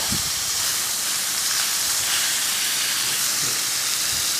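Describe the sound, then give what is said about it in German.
Spätzle sizzle steadily in hot butter in a second pan, a loud, continuous crackling hiss that never lets up, with a few faint low knocks underneath and no one talking. “Dann machen wir eine zweite Pfanne. Da wo ich jetzt ein Butterhorst heiß machen noch und die Spätzle rein tue.”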